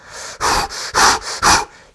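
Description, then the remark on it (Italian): Slow, deep breaths drawn in and pushed out in a steady rhythm during a meditation exercise, several airy whooshes with short pauses between them and no talking. “concentratevi sul vostro respiro, inspirate espirate, sentite l'aria che entra nel corpo e vi esce dai polmoni”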